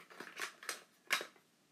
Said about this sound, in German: oh, jetzt sind die Schere.